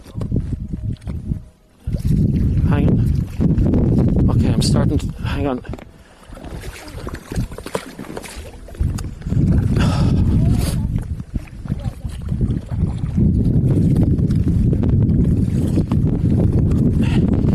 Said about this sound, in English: Now, now, can you see the island that you're uh, rowing towards?